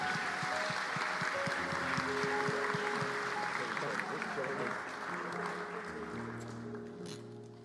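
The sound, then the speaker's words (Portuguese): A church audience applauds God during a service, steadily for several seconds, a dense wash of clapping that stays loud before tapering slightly toward the end, with sustained organ or keyboard tones underneath. “Vamos aplaudir a Deus na vida deles.”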